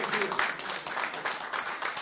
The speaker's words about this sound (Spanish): Aplausos, por favor. Felicidades.